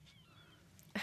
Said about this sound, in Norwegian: Nei, seriøst? Ja. Jeg har sånn, eh, sånn eh, måkeskrikalarm. har jeg. Har du sånn der alarm før alarmen? Sånn der eh, At det starter med sånn her fuglelyder, og så kommer det en faktisk alarm?